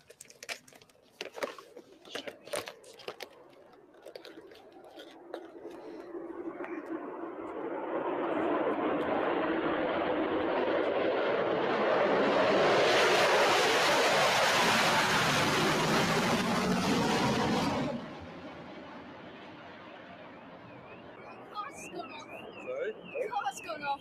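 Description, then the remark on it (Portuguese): A Concorde roars overhead while being filmed, its broad engine noise swelling to a loud peak and cutting off, after which a wavering electronic alarm, set off by the passing Concorde, starts whooping; voices chatter before the flyby. “Até o alarme disparou lá quando passou o bichinho.”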